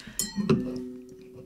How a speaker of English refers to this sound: hot diggity, my nails are way too long. you know your nails are too long when you're knocking over your wine glass.